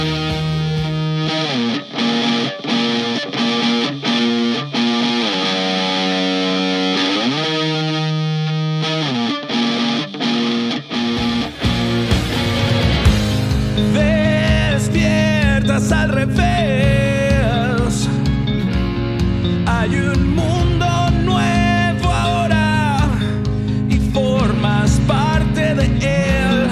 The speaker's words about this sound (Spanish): Aquí solamente un synth que está por ahí escondido y lo demás son puras guitarras